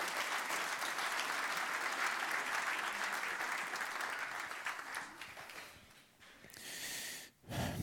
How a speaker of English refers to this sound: Guys, let's give them a round of applause, can we? Let's honor them.